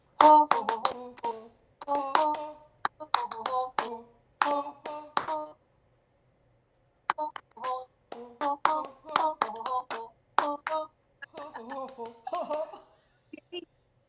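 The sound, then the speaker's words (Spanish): A group claps in quick rhythmic bursts while chanting "ho-ho" together during a laughter exercise session, the claps and voices repeating in short phrases with a brief pause partway through. “ya nos centramos en una emoción positiva, estamos aplaudiendo, estamos haciendo el jojo, y entonces hackeamos el pensamiento.”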